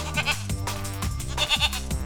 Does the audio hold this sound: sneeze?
no